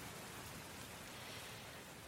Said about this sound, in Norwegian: Når de blir for store og tunge, så faller vannet ned på bakken igjen i form av regndråper.